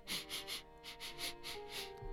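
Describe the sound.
A quick, rhythmic run of about eight short sniffs, soft, with a faint steady tonal hum underneath and no voices, as a boy comes in sniffing.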